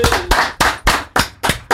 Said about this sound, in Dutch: We geven gewoon even een eigen applaus